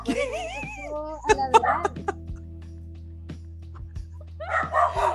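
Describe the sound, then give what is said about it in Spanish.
Lupi, a small dog at home, lets out a quick burst of sharp barks and yips, mixed with high whining tones, then pauses before another short flurry near the end over a low steady hum. “Esa es la Lupi.”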